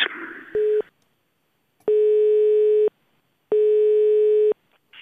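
telephone ringing tone

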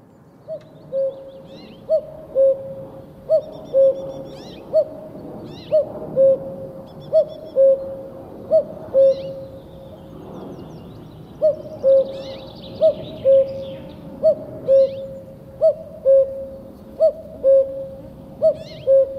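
common cuckoo calling

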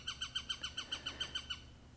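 eurasian sparrowhawk call

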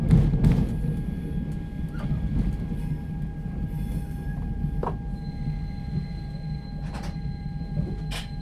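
train arriving

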